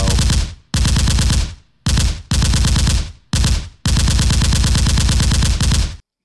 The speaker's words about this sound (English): That's the machine gun sound because we're going to rapid fire tight end movers.